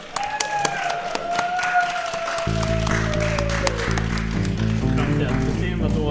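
Brisk applause from a small group, sharp scattered claps throughout, with a descending whistle-like tone over the first seconds and a low droning music bed joining about halfway.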